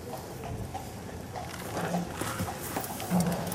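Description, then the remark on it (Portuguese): A carriage horse being given a bit of food, with shuffling hoof sounds and soft movement against a steady outdoor background hum, moderately loud and fairly continuous. “Nós aqui damos sempre um bocado de comer ao cavalo, que é uma, uma maneira de, de recompensar o cavalo pelo, pelo, pelo seu trabalho.”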